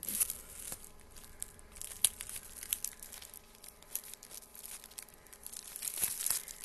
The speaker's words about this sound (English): So, I am opening up the second package. In one second.